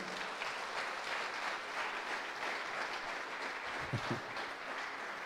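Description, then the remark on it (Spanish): A crowd applauds steadily to welcome a pastor at a graduation, a dense, sustained patter of many hands clapping at an even volume for several seconds, with no one speaking over it. “Lo recibimos con un muy fuerte aplauso al pastor Clendenen.”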